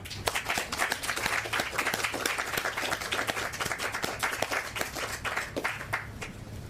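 An audience applauds a poetry reading at Poets at Art Fest 5, a poetry festival, during the second session of its second day. A dense wash of many hands clap at once, with sharp individual claps poking through, sustained at an even level for several seconds with no voices.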